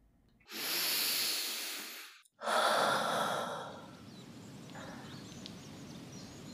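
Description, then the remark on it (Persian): A deep breath: a long, airy inhale, a brief pause, then a strong, breathy exhale that tapers off into quiet background hiss. “یک نفس عمیق میکشم.”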